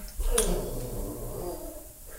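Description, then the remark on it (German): A dog gives a short snort, a sharp breathy burst followed by a low, rumbling exhale that trails off over the next second or two. “das war der Hund”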